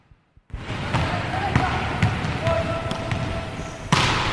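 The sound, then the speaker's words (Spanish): Basketballs bounce repeatedly on a hard court during the Erce team's morning training session before a match against Manacor, sharp thuds at irregular intervals over a steady echoing ambience, with voices murmuring in the background. “lo que oyes es el entrenamiento del grupo Erce en este caso eh, el matinal previo al partido que tendrá lugar esta tarde a las siete y media ante Manacor”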